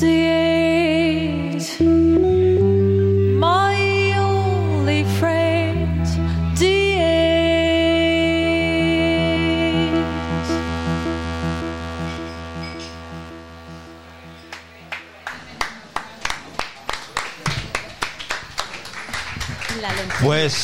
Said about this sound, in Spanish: ha sido otro maravilloso medley de … que los tenemos hoy aquí en directo en la lonchería